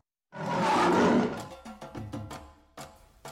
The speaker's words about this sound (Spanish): ¡Hostia, por Dios! Tenemos un león en la emisora.